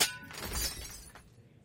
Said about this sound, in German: wie viele Teller und Gläser Gunsbert mit diesem Topf über dem Kopf zerbricht